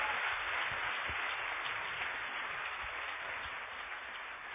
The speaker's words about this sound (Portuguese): Quem recebe essa palavra, aplaude o Senhor bem forte, porque o Senhor é divino.